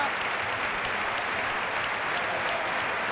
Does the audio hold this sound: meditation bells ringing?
no